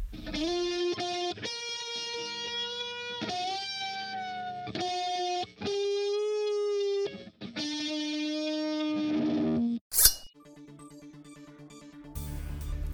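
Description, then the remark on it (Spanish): A distorted electric guitar plays the national anthem as a slow, stately melody, sustained notes with a heavy effects-laden tone, pausing briefly near the end before a final strummed chord. “El expresidente nos ha pedido tocar la guitarra eléctrica en vez de su acostumbrada flauta traversa, así que cada vez que escuchen las sagradas notas de nuestro himno nacional, sabrán que es él.”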